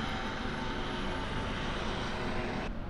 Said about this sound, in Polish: Znowu nam leci jakiś helikopter. Teraz czerwony.